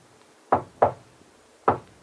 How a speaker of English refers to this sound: It is the familiar signal, one knock, then two, then one, that identifies a member of Ivan Shark's organization.